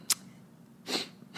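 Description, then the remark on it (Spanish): A soft, quiet sneeze: a brief sharp hiss followed by a longer breathy burst, with another rush of air starting just as it ends. No one speaks. “Salud.”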